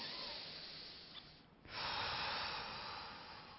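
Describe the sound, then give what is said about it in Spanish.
A deep, airy breath drawn in, a brief pause, then a long, steady exhale, with no talking, demonstrating a breathing exercise. “respira, bota por la boca al principio y después respira profundamente y solamente pon la atención en la respiración.”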